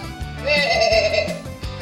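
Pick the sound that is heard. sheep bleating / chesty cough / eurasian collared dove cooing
sheep bleating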